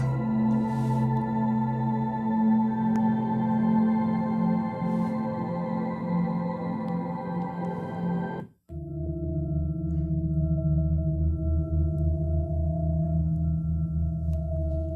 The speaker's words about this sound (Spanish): nos gustaría mostrarte la Sinfonía de los Planetas. Este es el sonido del espacio abierto registrado por una nube espacial de la NASA que viaja por todo el sistema solar. Lo que ahora escuchas no es más que la melodía del espacio a nuestro alrededor.